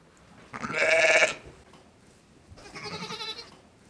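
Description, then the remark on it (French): Two ewes on a sheep farm in Saint-Chef bleat in turn with no talking: a loud, wavering bleat, then after a pause a second, softer one. “je suis éleveur de brebis à Saint-Chef.”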